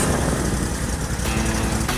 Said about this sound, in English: That's the sound of a day starting out right. I hear it every time my new Toro Z Master 4000 zero turn starts up.